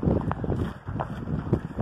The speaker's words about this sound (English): Hope you can hear me through the wind. It's Saturday, May 9th, and we're at the Dutch Country Farm Market with our masks appropriately. Super windy and cold, but we're out